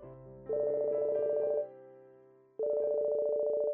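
household object, mobile phone ringtone

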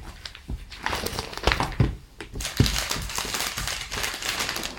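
household object, newspaper pages being turned

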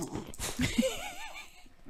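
animal, dog whimpering

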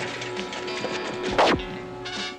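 impact, punch landing

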